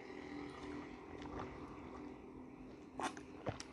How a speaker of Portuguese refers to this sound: Deixa eu dar mais uma mordida no hambúrguer. Que tá uma delícia. Cara, eu amo esse hambúrguer.